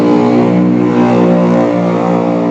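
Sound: motorcycle engine revving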